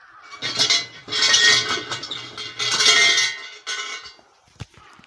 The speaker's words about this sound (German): Also jetzt bin ich genau hier vor einem kleinen Schrein und mach mal der, der, der äh, Schreingott, der Kami schläft zwar schon, aber ich äh, rüttel trotzdem mal hier an der Glocke.